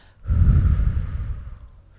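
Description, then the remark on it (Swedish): A single long, breathy exhale blown out steadily for over a second, fairly loud, fading away at the end with no talking, done as a breathing exercise for voice control. “Och, eh, så att andning håller man på med länge och sen som vi gjorde att man lägger på ett eller kanske bara blåsa ut”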